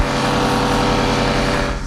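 A Kärcher pressure washer runs steadily throughout while a Jeep Wrangler is covered in snow foam, a loud, continuous motorized drone with a buzzing, hissing edge and no pauses or speech.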